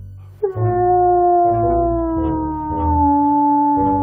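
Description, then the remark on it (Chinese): A long, loud wolf-like howl, let out by Mocha looking up at the golden moon, starts abruptly and holds one sustained, wavering note for several seconds, its pitch sinking slowly toward the end, with no talking. “使出浑身的力气，就像狼一样放声嚎叫起来。”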